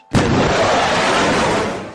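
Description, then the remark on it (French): A sonic boom from a jet breaking the sound barrier: one sudden, loud, sharp bang followed by a broad rumbling roar that lingers and slowly fades, with no voices. “Ce bang que vous venez d'entendre, c'est un avion qui passe le mur du son.”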